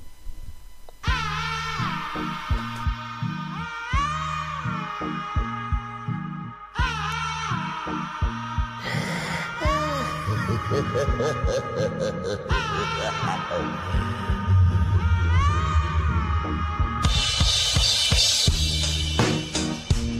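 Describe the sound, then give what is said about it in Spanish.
A trip hop song intro plays, with a steady, thudding beat and deep bass under layered melodic lines, building slightly in fullness toward the end. No one speaks. “Trip hop, indie, hip hop alternativo, es imposible clasificar a estos grandes de la música,”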